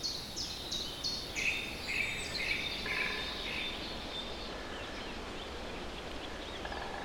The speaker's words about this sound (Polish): Wiatr szumi jeszcze po gołych gałęziach drzew, ale ptaki zaczynają już nieśmiało się nawoływać.